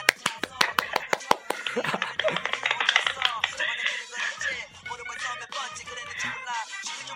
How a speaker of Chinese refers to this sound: 鼓掌！快鼓掌！